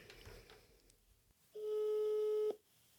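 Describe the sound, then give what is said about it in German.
A single telephone ringing tone while calling someone's mother, one steady mid-pitched buzzy beep lasting about a second, sounding clearly after a stretch of quiet background noise with no one talking. “Okay, ich rufe mal meine Mutter an.”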